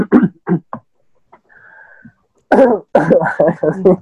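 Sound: throat clearing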